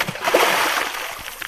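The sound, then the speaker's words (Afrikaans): A heavy splash as a grandfather loses his balance and falls with a child into a small garden pond that is not very full: a broad burst of spray and sloshing that swells quickly, then settles into softer dripping and churning over about a second and a half. “Maar oupa verloor sy balans en val saam met Cassidy Ann in die dammetjie.”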